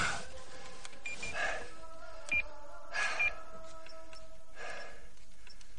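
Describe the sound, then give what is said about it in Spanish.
A few short, high electronic beeps from mobile phone buttons being pressed as the phone is switched back on, spaced irregularly, with soft breathy rustling and faint background hiss between them. “Se coloca boca abajo y vuelve a encender el teléfono.”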